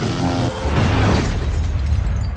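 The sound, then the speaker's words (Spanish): A loud sci-fi plasma ray weapon blast, fired during practice in a film scene, a sustained roaring burst with a buzzing, tonal start that spreads into a broad crackling rush lasting a couple of seconds. “Arma elegida, rayo de plasma.”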